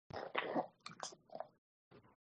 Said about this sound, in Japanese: ガウガウガウガウ夜の。すいません。犬が。失礼しました。めっちゃ舐められてる。